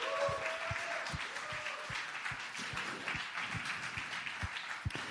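Audience applause for the show's producer, who picked the audience questions, fills the whole stretch: a dense crackle of many hands clapping at a steady level, with a few sharper individual claps standing out and faint voices or cheers mixed in.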